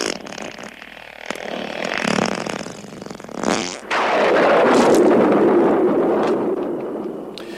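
A long, loud, rumbling fart from the 1981 film La Soupe aux choux by Jean Girault swells into a sustained, sputtering blast, preceded by shorter raspy bursts, with no one speaking.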